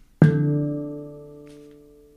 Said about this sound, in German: Mach, ich mache mir hier einen Gong und bis zum nächsten Gong denkt jetzt einfach mal. Einfach da sein. Einfach präsent sein.